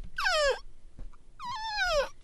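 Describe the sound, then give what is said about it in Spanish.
A person cries out in two long, wailing sobs at a radio station, each sliding downward in pitch, with a brief pause between them. The crying is loud, with no talking over it. “¿Quién llora en una estación de radio?”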